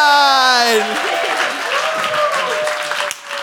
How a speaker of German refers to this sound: Aber dann, äh, dann können wir Sie jetzt schon ein bisschen da ermutigen und äh, mit einem großen Applaus willkommen heißen unseren